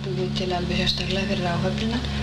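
A steady, droning airplane engine hums continuously, its low tonal rumble layered under a hissy, sizzling wash of noise that stays constant throughout.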